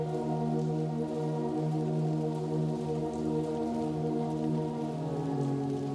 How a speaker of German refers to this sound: Unter den wenigen Straßenlaternen lässt sich die Richtung des nächtlichen Regens beobachten.